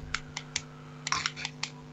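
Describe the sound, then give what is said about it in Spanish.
A ballpoint pen clicks repeatedly, a quick string of about eight sharp little snaps in an uneven rhythm, fairly quiet over a low steady hum, with no talking. “Eh, el, que esté, con el, el, que esté con el boli que pare, por favor.”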